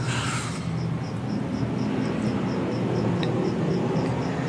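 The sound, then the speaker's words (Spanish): A steady, high-pitched cricket chirp repeats at an even, quick rhythm over a low background hum, fairly faint and continuous, with no one talking. “Qué raro, no sé, no sé de dónde puede venir sonido de grillos.”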